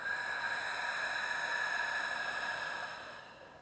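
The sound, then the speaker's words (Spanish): A long, steady breath pushed out through the mouth during a guided breathing exercise, airy and hissing with a faint whistling tone, holding for a few seconds before trailing off. No talking. “Exhala por boca.”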